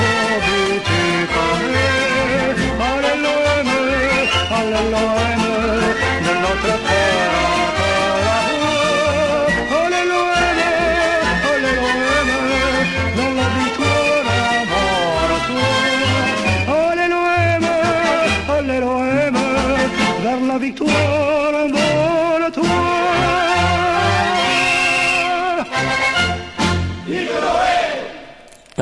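A football supporters' anthem for OM plays loudly and continuously on Radio Grenouille, with sung vocals over full instrumental backing and a rousing, chant-like feel, before cutting off abruptly at the end.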